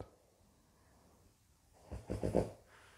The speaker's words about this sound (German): Da atmet sogar mein Hund durch. Immer zur richtigen Stille. Wir haben das abgesprochen.